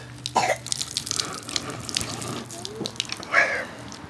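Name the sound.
water flowing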